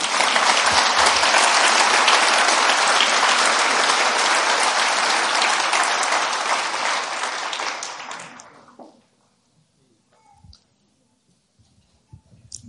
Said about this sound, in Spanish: Yo creo que eso merece un fuerte aplauso.